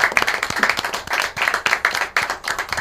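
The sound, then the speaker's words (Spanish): A crowd applauds everyone present at a gathering, many hands clapping in a dense, steady burst of sharp overlapping claps without any talking. “un aplauso por favor para todos los que estamos aquí.”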